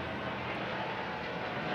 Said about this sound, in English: Oh, it's a helicopter. Yeah. It's probably a traffic helicopter.